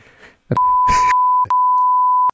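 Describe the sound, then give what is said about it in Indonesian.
Two long, loud steady beep tones, each close to a second, cut in over bits of speech, the classic censor bleep masking words, with a short burst of talking between them. “ya, itu lucu tuh jadi waduh nih sensornya banyak nih”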